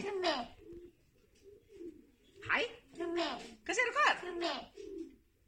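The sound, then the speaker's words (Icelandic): A pet raven named Krummi gives hoarse, throaty calls that mimic human words, saying its own name and 'hæ', in short bursts trading back and forth with a person speaking. “hann var nú aðeins og feimir hérna við okkur en hérna heyrist hann að minnst að segja sitt eigið nafn og eins og hún sagði líka, hann kann að segja ha”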